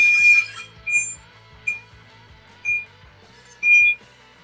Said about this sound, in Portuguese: Não tá ouvindo uma... o caminhão da mudança dando ré aí, não? Ah! Ai, que loucura, meu. É verdade. É verdade, a mudança tá saindo.